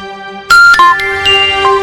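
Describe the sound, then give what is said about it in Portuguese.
A radio station's time-signal chime marking 17:35 in Camaquã: a short run of bright, ringing bell-like notes, four strikes in quick succession with sustained tones overlapping. Clear, with no voices. “é a hora certa”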